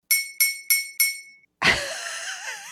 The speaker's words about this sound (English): Was that your just your glass? Was that your coffee? That's me hitting a knife on my glass.